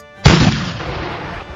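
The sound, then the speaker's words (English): A single loud blast from Napoleon's cannons on the hills at Toulon, firing at British ships, booms out suddenly, followed by a long rumbling decay that lingers and slowly fades, with no voices present. “He put his cannons on the hills, and instead of firing at the town, he fired at the British ships.”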